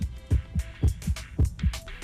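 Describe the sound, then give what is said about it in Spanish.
A steady heartbeat, caused by electrical impulses from the heart's natural pacemaker, thumps in low, muffled lub-dub pairs, about three double beats in quick, even rhythm, clear with no voices. “Estos latidos son provocados por impulsos eléctricos que se originan en el marcapasos natural del corazón”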